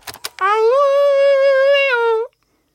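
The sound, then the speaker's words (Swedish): A person imitates a wolf howl with one long, loud, steady vocal tone that rises slightly, holds for nearly two seconds and dips at the end, after a couple of short clicks. “ylandet helt enkelt”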